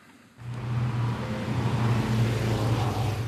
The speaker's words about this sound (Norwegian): Vi er ved et lyskryss i Rosenkransgata i Drammen. For en stund siden sto det en fotoboks her. Men selv etter at den er fjernet, bremser bilistene ned farten forbi krysset.